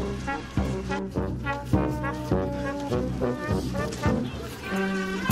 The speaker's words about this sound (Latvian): Leņķina ielas pusē tālumā sadzirdams pūtēju orķestris. Laikam jau vefieši tuvojas centram.